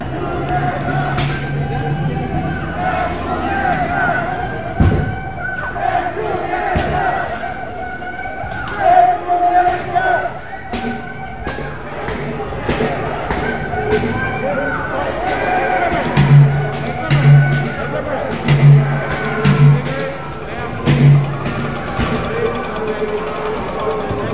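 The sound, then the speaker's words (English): A dense outdoor crowd of Antifa marchers in the streets of Oakland roars and chants "death to America", with sharp crashing and thumping impacts of smashing glass breaking through the din and a rhythmic pulse of voices building near the end. “Antifa marched down the streets of Oakland chanting death to America to sound the smashing glass”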